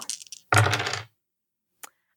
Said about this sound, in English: I rolled a three sixes.